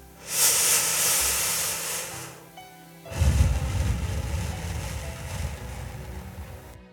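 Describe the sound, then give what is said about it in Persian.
A Senator cigarette, taken from a crimson metal case, is lit with a lighter and drawn on: a steady, airy hiss for about two seconds, a brief pause, then a longer, lower breathy rush that fills the rest. “یه بسته سیگار سناتور که در یک جلد زرشکی فلزی بود باز کردم و یه سیگار برداشتم و از کشوی بغلیم فندک و برداشتم سیگار آتیش زدم و کامی از اون گرفتم”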